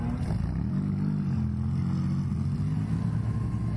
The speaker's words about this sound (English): Hey, how do we get on that side? Not while the cars are going round.